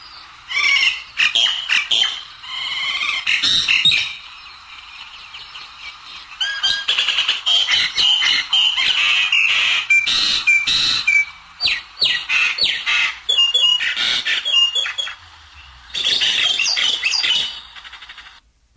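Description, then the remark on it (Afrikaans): A pest bird's harsh, varied calls pour out in long, loud bursts of squawks, chatters and whistles, a dense mimicking jumble with brief pauses between runs, with no voices. “Nou, die voël waarvan ons praat, raas so.”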